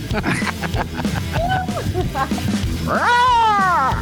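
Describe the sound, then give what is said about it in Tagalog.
A person mimics a cat, giving a short, quieter meow followed by a long, loud, drawn-out meow that rises and falls in pitch. “Magpupusa-pusa ba? Wag na, angiologs to. Meow.”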